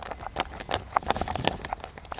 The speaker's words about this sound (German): jetzt nimm doch noch mal dein Töpfchen und schüttel mal ganz stolz, was du alles gesammelt hast.